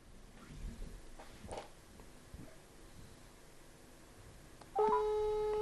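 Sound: telephone ringback tone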